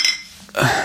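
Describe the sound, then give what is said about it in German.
Glasses clink together in a toast in an office at a university, a bright ringing knock near the start followed by a second fuller clatter of glass just after, fairly loud. “Auf die nächsten zwölf. Prost.”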